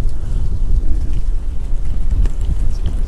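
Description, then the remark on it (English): Strong wind buffets the microphone in a continuous low rumble, loud, with gusty surges and scattered crackles throughout and no voices, as a monsoon storm is coming up. “Yeah, it's getting windy here. We got a little monsoon coming up.”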